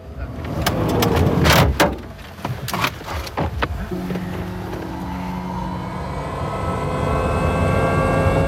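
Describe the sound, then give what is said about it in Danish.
A helicopter powers up for takeoff from Kulesup airfield: several sharp knocks and rattles at first, then a steady rising turbine whine and rotor roar that grows louder and fills the scene. “Helikopteren hævede sig, over Kulesup flyveplads.”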